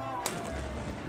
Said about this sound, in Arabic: وهذا صوت مدفع الفطور